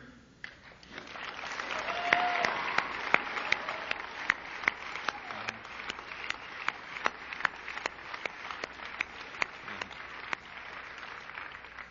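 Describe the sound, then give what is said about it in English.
A crowd of about a thousand people at a college event breaks into sustained applause for the college president, dense clapping building quickly and holding steady with sharp individual claps standing out for the full stretch. “there was no card that someone held up and said to applaud”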